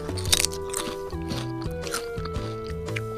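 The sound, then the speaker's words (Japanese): Someone crunches olive-flavored potato chips, with a rapid run of crisp, loud bites followed by several more spaced crunches while chewing. Soft tonal background music plays throughout, and no one speaks. “うんおいしい普通においしいポテトチップスうんうんオリーブなんだ”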